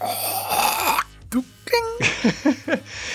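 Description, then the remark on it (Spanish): A person vocally imitates a whale spitting something out: a long, breathy hissing spray, followed by a few short, sputtering mouth bursts and brief voiced sounds, fairly loud. “Digo, porque no tienen así como que los labios tan flexibles como nosotros para hacer, ya sabes, ese ruido de... Así como que la, boca de, de... Pues escupirlo con todas las de la ley, así de...”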